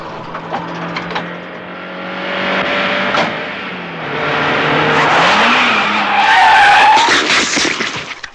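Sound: car passing by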